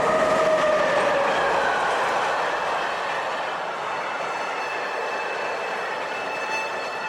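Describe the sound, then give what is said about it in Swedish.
A train in Sweden runs along the tracks at full speed in November with a loud, steady roar and faint metallic whining tones, heard continuously throughout with no voices. “Först tror de att de ska spåra ur när tåget plötsligt i full fart kastas in på ett annat spår än det som går rakt fram.”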